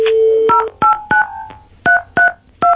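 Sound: telephone keypad dialing tones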